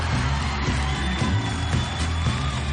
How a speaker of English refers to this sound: And so I want everybody to get your hands together and your feet together and your mouths together and give Mr. James Hendrix Sr. a nice round of applause.